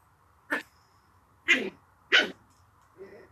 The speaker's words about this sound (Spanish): Ay, mi perro peleando la comida, que no se la vayan a comer. Pobrecito. El papá, la mamá y la hija.